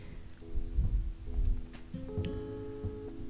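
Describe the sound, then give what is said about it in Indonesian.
A quiet, steady electronic ringback tone hums through the line while someone waits on a phone call to a friend in Kediri, East Java, with soft rumbling handling noises underneath. No one speaks. “Masih tutut harusnya pakai nada sambung ini biar keren gitu loh belum juga diangkat”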